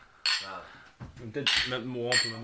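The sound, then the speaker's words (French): Glasses clink together in a toast, three bright ringing chimes spread across a couple of seconds, with low voices murmuring between and beneath them. “Mais alors pour ça, je pense que c'est important de trinquer quand même.”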